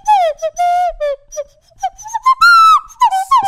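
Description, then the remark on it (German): A person whistles a wavering, bouncy little tune in short melodic phrases with brief gaps, fairly loud, with no talking. “das dein Song für den Eurovision Song Contest?”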